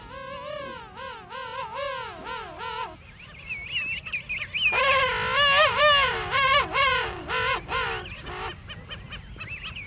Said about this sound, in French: Donc là, ce sont des manchots royaux. Là, on entend des parents qui se répondent et un poussin entre les deux. Donc là, le poussin est vraiment ravi de voir ses parents arriver puisqu'il sait qu'il va être nourri.